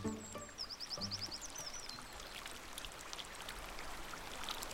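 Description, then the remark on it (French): River water flows in a steady rushing wash, with a few quick bird chirps and trills over it near the start; a river in the Vancouver area of British Columbia, in western Canada. “Vous pouvez même mettre les pieds dans l'eau de la rivière.”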